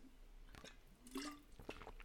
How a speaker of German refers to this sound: und du musst einen Schluck von Wasser nehmen, so überraschend ist es.